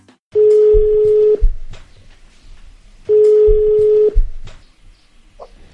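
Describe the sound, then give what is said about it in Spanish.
A telephone ringback tone of a call placed for a live on-air interview sounds twice, each a steady tone about a second long separated by a pause of roughly two seconds, with faint background noise and clicks between rings. “Pues te estoy llamando, está en directo, está en, el aire.”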